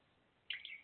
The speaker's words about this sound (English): So I can hear the crickets outside my window.